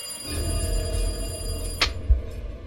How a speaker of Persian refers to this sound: حس میکردم الان که دیگه گوشم کر بشه اصلا باورتون نمیشه ولی با هر بار زنگ تلفن انگار تمام وسایل خونه میلرزید برقای خونه ضعیف و قوی میشد دیگه آخراش حس میکردم از همه دنیا داره صدای تلفن میاد